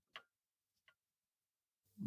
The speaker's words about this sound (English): you hear the sound of the clock. There's a clock on the mantelpiece um, kind of an old fashioned type clock. It it does a ping type sound, and you, you see it's four o'clock.